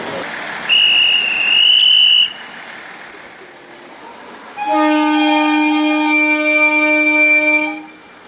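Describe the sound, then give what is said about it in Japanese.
A Noto Railway train's whistle sounds as it departs Noto-Nakajima Station just after 6:30 a.m., carrying commuting high school students on its first departure since the earthquake: a short, thin, high-pitched tone, a pause, then a loud, steady horn blast lasting about three seconds. No one speaks. “今朝6時半過ぎ通学する高校生などを乗せ地震後初めて能登鉄道の列車が能登中島駅を出発しました”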